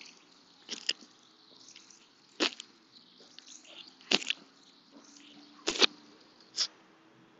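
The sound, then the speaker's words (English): Water drips from a faucet, about five distinct plinks spaced irregularly a second or two apart, moderately quiet against a faint, still background with no talking. “It's always nice to know when there's a little bit of a fucking faucet somewhere.”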